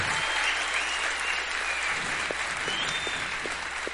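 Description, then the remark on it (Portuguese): A crowd applauds teachers steadily, a dense, continuous wash of clapping from many hands that holds at an even level throughout, with no voices standing out. “Vocês, eu queria um aplauso para os professores.”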